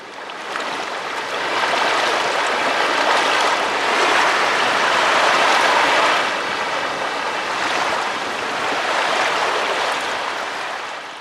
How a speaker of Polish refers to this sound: Nagrywając poprzedni odcinek, e, bardzo mocno przeszkadzał mi wiatr i fale, ale właśnie ze względu na te fale i wiatr znalazłem się w tamtym miejscu.